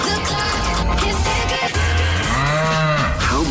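A cow moos loudly in a long, drawn-out low bellow with a wavering pitch that rises and falls, filling the whole few seconds with no voices, used in the Cork's 96 FM Cash Cow radio promotion.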